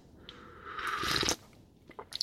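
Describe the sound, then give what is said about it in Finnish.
A single short slurping sip of hot tea, rising to a brief airy rush and cutting off, followed by a few faint clicks of the mouth, otherwise quiet. “Ja nyt otetaan pieni hörppy, varokaa.”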